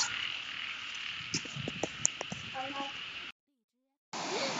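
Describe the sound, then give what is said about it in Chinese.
A dense chorus of frogs croaks at night on Samet Island over a steady high insect-like hiss, with repeated short pulsing calls layered together. The sound cuts out briefly to silence, then the chorus resumes. “青蛙大合唱的声音。”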